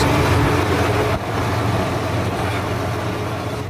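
tractor engine

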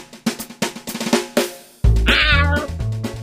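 cat meowing

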